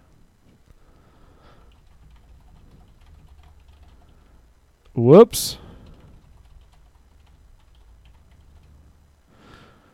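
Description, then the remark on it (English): Soft, quick clicks of someone typing a tweet on a computer keyboard for the This Might Sound Stupid account run through the background, briefly interrupted midway by a short, loud spoken exclamation. “And I'm also going to tweet it from the This Might Sound Stupid account real quick here.”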